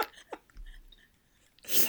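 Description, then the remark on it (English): A single sharp, explosive sneeze bursts out near the end, preceded by a few soft breathy sounds and near silence. “love a good sneeze on air.”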